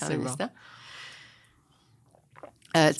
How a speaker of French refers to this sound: je vais prendre ma petite gorgée d'eau bon.